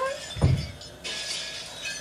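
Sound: glass shattering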